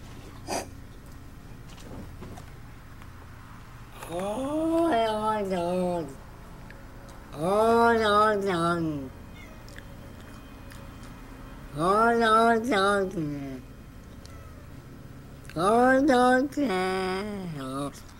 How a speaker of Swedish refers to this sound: Vänta, låt mig ta fram det där klippet. Det finns ett klipp där en av katterna lät precis som den gjorde.